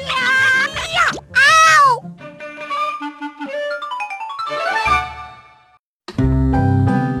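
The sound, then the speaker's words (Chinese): A girl, the story character Wendy, lets out two loud, high-pitched screams as her mother combs her hair, the second one wavering and strained, followed by a stretch of light tonal music with plucked and sustained notes. “温蒂尖叫！”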